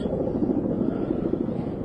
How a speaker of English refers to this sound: And some green and brown helicopters come flying through. They big. Oh, they big. I think he's coming. But like two sausages. With two propellers. And four wheels.